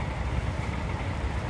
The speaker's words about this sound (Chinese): 哎，我们来录这个声音来。火车来了